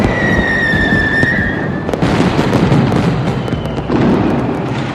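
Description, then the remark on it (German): Dense New Year's Eve fireworks and firecrackers crackle and bang continuously, with a rising whistling squeal at the start, loud amid a thick wash of further explosions. “Diesmal schauen wir uns an, was es bedeuten würde, wenn Silvester nicht mehr so klingt.”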